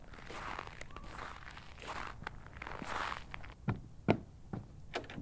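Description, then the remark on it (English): Footsteps crunch steadily toward a cabin in the middle of nowhere at a walking pace, several distinct steps, with a few sharper thuds near the end over a soft rustling background. “After the long drive, he soon arrived and headed up to his house”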